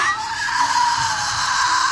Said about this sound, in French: Tu entends Ce sont des cris d'oiseaux. Toi, la guerrière, tu sursautes à chaque petit bruit.